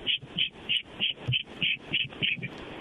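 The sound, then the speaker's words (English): A voice imitates the squeal a car's brakes make right after new front brake pads were put on, as a rapid, steady run of about nine short, high-pitched squeaks, fairly loud, with no other talking. “Um, and I just I wanted to know what that could possibly be, especially considering it, it happened like right after I got new brake pads put on the front wheels.”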